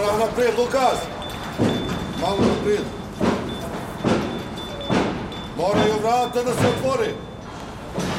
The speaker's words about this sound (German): Seine Ansagen muss er laut machen, um gegen den Baustellenlärm anzukommen.